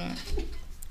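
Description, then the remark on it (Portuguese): A single short, abrupt sneeze bursts out partway through, with a brief voiced tail, set against a low, steady background murmur. “um deu um espirrão aí, aqui.”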